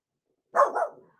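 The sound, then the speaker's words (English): A single bark from Pickle the dog, with a quick double-pulsed shape, moderately loud, standing alone against silence before trailing off. “I'm sorry, Pickle is barking, everybody,”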